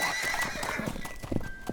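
A horse whinnies with a high, quavering neigh while its hooves clop in quick, uneven steps, with no voices.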